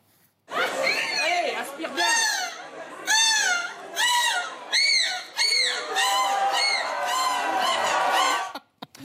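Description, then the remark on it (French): A woman, winner of the 2022 gull-cry world championship held in Berg in the Nord, loudly imitates a gull's cry, a series of shrill, wavering squawks and laughing calls rising and falling in quick bursts for several seconds. “C'était hier à Berg, dans le Nord, le championnat du monde de cri de la mouette, championnat du monde.”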